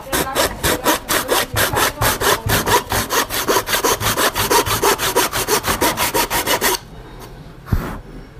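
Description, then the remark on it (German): Steady, loud back-and-forth strokes of a hand saw cutting through wood, about three strokes per second for nearly seven seconds, then stopping, followed by a couple of faint knocks. “Also ich habe kurz was fertig gesägt.”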